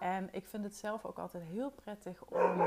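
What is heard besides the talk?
dog barking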